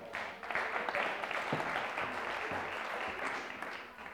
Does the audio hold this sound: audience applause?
yes